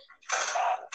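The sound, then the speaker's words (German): A door in a video game slides open or shut with a loud, harsh mechanical whoosh lasting about half a second, and a second door movement starts right at the end. Nobody speaks. “Und jetzt gehen die Türen auf und zu, wetten?”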